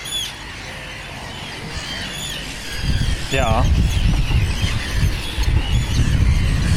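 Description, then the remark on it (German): Shrill, repeated screeching calls of Arctic terns circling over a coastal dike during the breeding season, several birds crying over and over from above, with wind noise and a person briefly speaking in the background. “Die Vögel drehen.”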